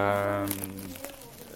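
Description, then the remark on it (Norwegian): Plastic cling film crinkles and crackles in short bursts as it is wrapped, with tape, around a singer's head to make a cast of the head, over a low voiced hum at the start that fades away. “og det gjør vi rett og slett ved sånn matplast og teip, som vi bare Som vi bare”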